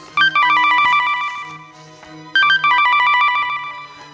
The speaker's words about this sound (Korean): 가자마자 나, 바로 남편한테 전화가 왔습니다.